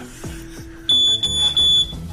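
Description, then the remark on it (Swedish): A smoke detector with a low battery beeps loudly, a shrill high-pitched tone sounding in a few quick bursts with short gaps. A low rumble of background noise comes first. No one speaks. “Han orkar inte ens byta brandvarnare.”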